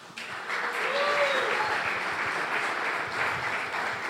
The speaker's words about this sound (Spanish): Vamos a dar un aplauso a Pablo.